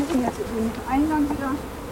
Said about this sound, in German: also Smoker anwerfen, Deckel mhm. aufstemmen, Honigwaben entnehmen, Bienen wegpusten und ins Auto verfrachten wir stehen jetzt so äh, in so einer Wolke von na, ziemlich viel schwirrenden Bienen genau, herum.